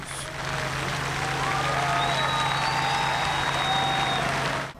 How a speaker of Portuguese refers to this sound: Muitas pessoas buscavam o melhor lugar para dar o último adeus. Na despedida, aplausos.